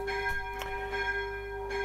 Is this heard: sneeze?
no